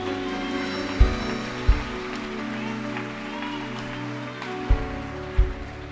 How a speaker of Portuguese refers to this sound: Pode aplaudir a Ele.